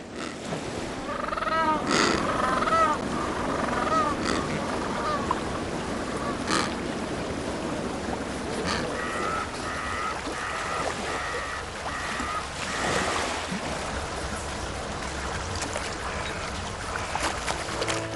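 A land-based breeding colony of over 2,500 African penguins at Boulders Beach on the Cape Peninsula brays and honks in overlapping, harmonic calls, some loud, others softer, over a steady wash of surf and lapping water.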